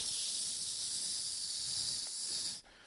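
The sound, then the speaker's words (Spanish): A voice imitates the steady, sharp hiss of a pressure cooker letting off steam, holding one loud, continuous hiss for about two and a half seconds before cutting off abruptly. “o a la olla pitadora que le pone uno el tenedor palanqueado ahí para que”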